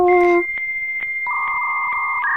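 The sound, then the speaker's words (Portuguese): A dial-up modem handshake: a brief buzzy opening, then steady high electronic tones that shift in pitch, broken by faint regular clicks. Fairly loud and with no talking. “Aquele barulhinho de conexão.”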